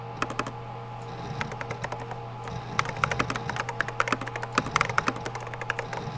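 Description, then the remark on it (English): Rapid, irregular clatter of keys as a search query for dice and pipes is typed on a computer keyboard into the Jackpoint system, crisp, with brief pauses between bursts over a steady low electrical hum. “Enter search query now.”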